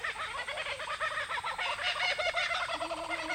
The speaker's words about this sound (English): Oh, and a kookaburra calling too.